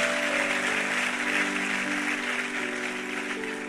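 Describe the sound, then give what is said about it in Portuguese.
An audience applauds steadily for a few seconds at the close of a sermon, a dense, even wash of clapping over sustained organ or keyboard tones humming underneath, fading slightly toward the end. “Vamos aplaudi-lo, vamos orar, vamos embora para casa.”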